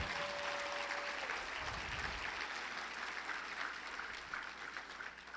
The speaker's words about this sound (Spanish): Si yo fuera tú, le daría un aplauso fuerte al Señor.